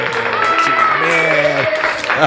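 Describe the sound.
A steady burst of applause fills the whole moment, mixed with loud cheering voices shouting over the clapping.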